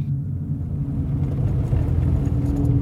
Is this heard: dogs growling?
no